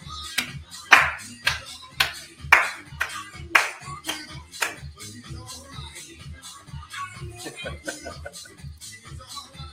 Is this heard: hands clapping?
yes